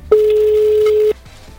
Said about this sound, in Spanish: Está sonando el teléfono. Estamos haciendo un llamado en vivo. Estamos en Forti, en un plan perfecto. Vamos a ver si nos atiende esta persona.